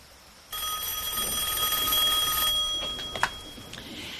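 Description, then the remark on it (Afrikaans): A telephone bell rings loudly and continuously with a bright metallic trill, starting abruptly after a brief quiet moment and sustaining for a few seconds before a faint clunk. “Los die foon vrou. Ons het nie nou tyd vir haar geklets nie.”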